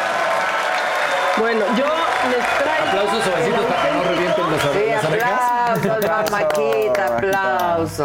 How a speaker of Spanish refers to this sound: Me aplaudo yo solita ya, amigos. Gracias por el aplausito.